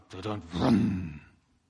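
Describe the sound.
A voice mimics a Taurus car engine cranking over as the key is turned in the ignition, a short burst of throaty, sputtering vocal noise lasting about a second before it cuts off.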